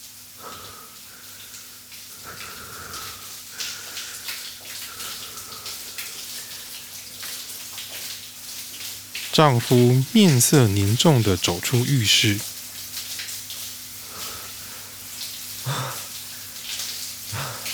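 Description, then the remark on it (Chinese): A bathroom tap left running, a soft continuous hiss of water throughout, while a voice speaks briefly over it in the middle. “啊，浴室的水都忘记关”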